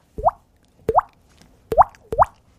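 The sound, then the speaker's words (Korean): On a radio show, a classically trained singer doing voice impressions imitates water droplets with four crisp mouth plops, each a short click followed by a quick upward-sweeping pitch, spaced unevenly over a couple of seconds with silence between them. “물방울 소리 한번 내보세요”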